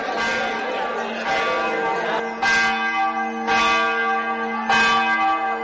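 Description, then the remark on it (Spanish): Cathedral bells peal loudly in an overlapping cascade as an emperor advances through the city streets, fresh strikes landing about once a second over a dense, ringing wash of sustained tones that never fully decays. “Las campanas de la catedral repican mientras el emperador avanza por las calles de la ciudad.”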